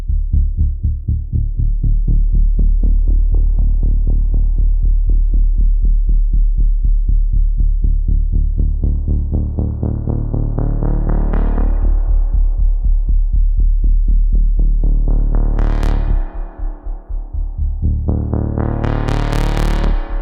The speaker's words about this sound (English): to use the Prophet 10 again, but I'm using a bass patch here you're going to hear it triggering the spring reverb in really interesting ways where you're getting surprising overtones, which I think is really great for film and sound design work.